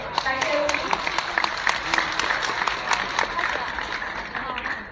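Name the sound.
audience applause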